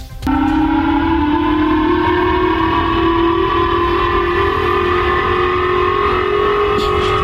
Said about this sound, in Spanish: Esto que van a oír es la sirena antiaérea japonesa. No vayan a pensar que es el sismo o algo.